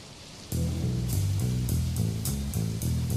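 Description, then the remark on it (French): Steady hiss of falling rain, soon joined by a calm musical intro with low sustained chords and soft, regular cymbal-like taps over the continuous downpour. “Avec la pluie qui tombe, mais c'est calme.”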